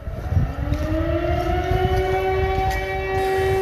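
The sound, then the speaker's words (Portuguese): A town siren in Porto Alegre, which sounds every Sunday at 5 in the afternoon, wails steadily, its tone slowly rising and holding as a sustained, fairly loud drone over a rumbling low background, with no voices. “Em Porto Alegre, a sirene toca invariavelmente às 5 da tarde de cada domingo.”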